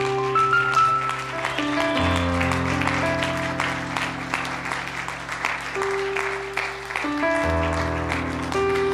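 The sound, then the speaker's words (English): A church audience applauds steadily for people coming up front to pray, a dense wash of clapping blended with sustained keyboard or organ chords playing underneath, at a moderate, even volume. “Church, why don't you put your hands together for these that are coming?”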